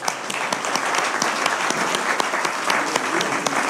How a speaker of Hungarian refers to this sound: Halleluja, tapsoljuk meg az új esélyt!